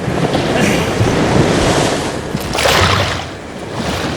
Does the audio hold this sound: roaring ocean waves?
yes